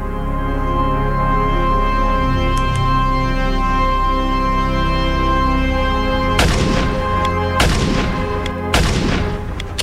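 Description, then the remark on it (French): Several sharp gunshots ring out over a steady, droning background, arriving in an irregular burst of three or four loud cracks with ringing tails. A woman fires on a bus in front of the twelve passengers after the driver brakes and opens the doors. “Le chauffeur freine enfin, ouvre les portes, et devant les douze passagères du bus, la femme tire.”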